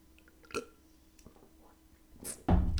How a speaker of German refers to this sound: Schluck Wasser. Ich mein Hals heute irgendwie trocken.